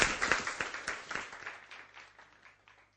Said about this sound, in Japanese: どうぞ皆さん拍手を持って迎えましょう